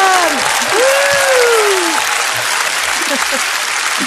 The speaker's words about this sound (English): and before we go, everybody should have a round of applause for the host with the most.